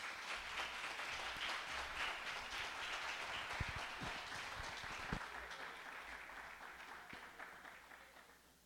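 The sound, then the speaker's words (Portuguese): A church audience bursts into sustained applause for God before a young person's testimony, a dense wash of many hands clapping at once, steady and fairly loud for several seconds before gradually thinning out toward the end. “Aplaude esse Deus maravilhoso.”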